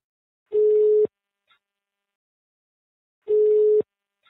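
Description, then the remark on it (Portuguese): Two long steady electronic tones, each about half a second, separated by a pause of a couple of seconds: the ringback pattern heard while a phone call is connecting, a call to a man working at the taxi drivers' union in Curitiba. No voices. “Eu descobri que ele atualmente trabalha no Sindicato de Taxistas de Curitiba, peguei seu número de telefone e liguei logo em seguida.”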